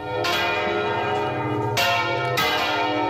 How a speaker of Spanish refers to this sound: Y esto fue suficiente para que en el año 2022 el toque manual de campanas en España pasara a formar parte de la lista representativa del patrimonio cultural inmaterial de la humanidad por la UNESCO.